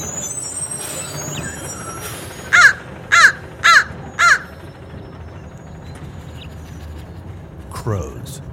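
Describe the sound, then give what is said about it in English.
Four loud, harsh caws from crows in the trees and on telephone poles of a neighborhood ring out in a steady sequence early in the morning over a low rumble of traffic, with a truck's air brake hissing briefly toward the end. “The garbage trucks come by early in the morning, and then in comes the sound of crows squawking in the trees and perching on telephone poles nearby.”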